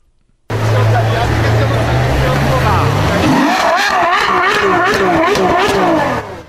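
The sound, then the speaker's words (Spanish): The engine of a 2019 Ferrari F28 sports car starts with a low, steady rumble, then revs hard in loud, wavering surges that climb and fall for a few seconds, with voices mixed in. “ok, entonces voy manejando, de que prendo mi carro. Es su Ferrari.”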